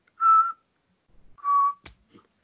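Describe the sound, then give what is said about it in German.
Two short, steady whistled tones, each about a third of a second, separated by a pause, followed by a sharp click and a faint soft noise: someone whistling to quiet a snoring sleeper. Clear, with no talking. “versucht er den runter zu pfeifen.”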